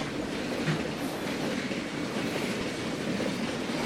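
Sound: train sound effect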